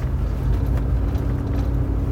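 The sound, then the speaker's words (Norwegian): A red Rolls-Royce car drives by with a steady low engine rumble and road noise that holds constant throughout, with no voices. “Det var en rød Rolls-Royce øh...”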